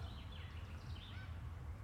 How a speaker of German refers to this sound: Und da sind sie, die Sittiche. Sittiche, wie heißen die denn, die, die Vögel? Ha grüne Halsbandsittiche oder irgend sowas?